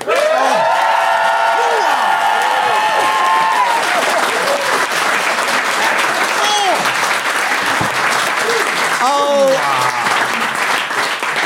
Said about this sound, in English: made the best case, please applaud now.